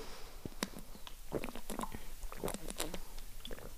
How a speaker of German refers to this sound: Gut, erstmal ein Schluck Wasser trinken.